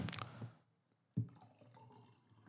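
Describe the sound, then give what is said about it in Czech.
Water is poured into a glass: a short splashy burst, a brief pause, then a second pour that gurgles and rings softly as the glass fills. “Chceš vodu ještě?”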